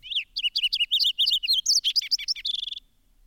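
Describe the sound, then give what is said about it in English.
A fox sparrow sings a bright, richly varied whistled song in the Smithsonian grounds in February, a quick run of clear, sliding notes ending in a brief buzzy trill, loud against a quiet background. “It is a strong, richly modulated whistle”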